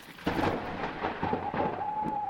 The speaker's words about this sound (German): Ich höre Blitz und Donner.